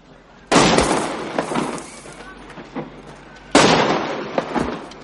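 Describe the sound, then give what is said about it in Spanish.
Two loud gunshots crack about three seconds apart, each sharp blast trailing off into a rumbling, echoing decay; the shots strike the ground just in front of a boy's feet as he walks across an esplanade. “Un disparo da unos centímetros de sus pies. El chico se detiene y mira hacia arriba. Luego continúa andando. Otro disparo se estrella delante de él.”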